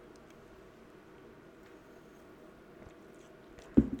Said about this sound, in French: J'ai à ma gauche un caucasaire. Donc euh, là, je vais en prendre une petite gorgée, tu vois.